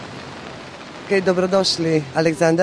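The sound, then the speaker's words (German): A steady, soft wash of sea waves with a light patter of rain fills the background at a long seaside promenade in Rabatz, alone for a second before a man starts talking over it. “Sie hören hier im Hintergrund schon die Wellen und äh, wenn Sie genau hinhören, auch ein paar schöne Regentropfen.”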